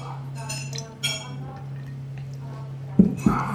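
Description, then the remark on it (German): Beer glasses clink together in a toast: a light ring early on, then two sharper knocks close together near the end, over a steady low electrical hum. “Du hast immer so ein lustiges Wort beim Prosten.”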